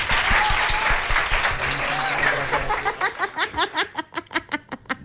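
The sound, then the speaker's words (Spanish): A crowd of students bursts into loud, dense applause for guests, gradually settling into fast, rhythmic unison clapping, with some crowd voices and laughter mixed in early on. “Así que un fuerte aplauso de vuestros compañeros, chicos.”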